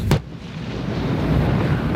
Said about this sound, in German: Nun rücken drei davon gemeinsam vor. Sie üben Schüsse auf feindliche Ziele, den Rückzug, erneuten Feuerkampf.